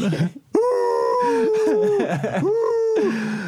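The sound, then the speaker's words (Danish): A person mimics a dog sitting and howling in the living room, with long, wavering, rising and falling vocal tones, two drawn-out howls in a row, fairly loud with no other talk. “To sekunder efter din kæreste ud af døren, så begynder han at sidde og hyle inde i stuen.”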